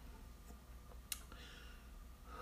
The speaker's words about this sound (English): Gosh, my chair is squeaking like crazy. Sorry, guys.